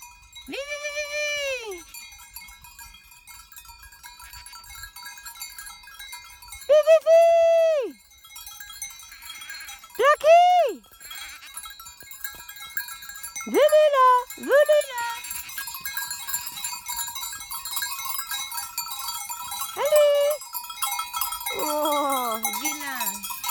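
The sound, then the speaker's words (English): Goats of a small herd bleat repeatedly in short, wavering calls, some loud, others quieter, while bells clang and tinkle steadily across an open alpine pasture in Switzerland. “experience of this season's Alpage in Switzerland with her small herd of goats.”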